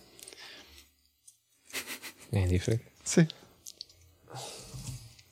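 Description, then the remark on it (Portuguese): Soft rustling and papery shuffling in several short bursts, with a couple of faint clicks, as small slips of paper are shuffled and three are drawn for a game; a brief spoken exchange sits in the middle. “Que é: tens de tirar aqui três papel, papelinhos. Uhum. Uh, baralha.”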